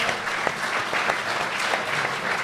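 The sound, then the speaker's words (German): Live audience applause from a crowd of about 140 people at a live event, a dense, steady wash of many hands clapping at a fairly loud level, with scattered sharper claps standing out and no voices above it. “Also Applaus also, an euch auf jeden Fall auch.”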